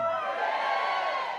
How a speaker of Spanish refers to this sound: A ver, todo el indiferente grite amén. Ah, no hay ni uno. Gloria a Dios, qué bueno. Todo el agradecido grite amén.